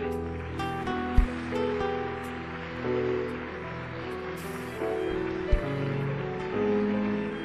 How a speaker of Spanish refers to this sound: Amén damos un aplauso, Señor.